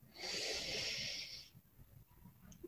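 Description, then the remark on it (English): A single long, steady nasal inhale, fairly loud, with a hissing airy rush lasting over a second before fading into quiet, taken during a guided collective breathing exercise of breathing in through the nose and out through the mouth. “Again, breathing in through our nose”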